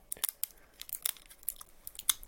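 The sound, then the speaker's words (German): Tesafilm adhesive tape crackles and rips in a series of short, sharp, crinkly bursts as it is put over wire connections, fairly quiet, with uneven rhythm and no voices. “Da machen wir jetzt ganz einfach wieder Tesafilm drauf.”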